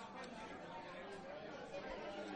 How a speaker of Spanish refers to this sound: Cuando llegó la niña, escuchó con claridad un rumor de personas conversando.